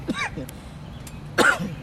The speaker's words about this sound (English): But those are weed coughs, everybody.